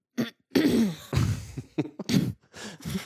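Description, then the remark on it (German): A person clears their throat several times in quick succession, fairly loud, with rough, raspy bursts separated by short pauses and no talking. “mich räuspern, sonst muss ich den ganzen Abend krächzen.”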